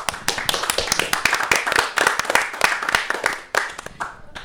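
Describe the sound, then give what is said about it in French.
A small group applauds itself for the work done on a festival, on its last day, clapping steadily for several seconds, the dense overlapping claps lively, thinning slightly toward the end. “Donc on peut déjà s'applaudir.”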